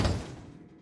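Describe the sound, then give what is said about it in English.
A heavy thud against the front door of a home at night, a single loud bang that rings out briefly and fades, with no voices around it. “All of a sudden, a loud banging at the front door startled her awake.”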